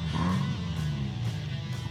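A rally car waiting at the start line idles steadily with a low, throbbing rumble and constant background noise, holding a continuous, fairly loud drone without revving.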